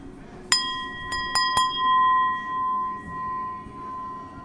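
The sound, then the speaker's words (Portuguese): Four sharp taps on a crystal glass in the workshop of the Museu do Vidro, the first at half a second and three more in quick succession, each leaving a clear bell-like ring that sustains and slowly fades over several seconds. “Quando faz este barulho, temos a certeza que é cristal, não é?”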